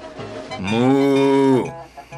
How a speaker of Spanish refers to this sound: Cuando llegó al potrero, se encontró con la vaca.